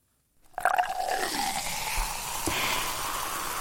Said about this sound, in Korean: 마지막 여름 소리 퀴즈. 얼음컵에 콜라 따르는 소리는 몇 번인지 정답 발표할게요.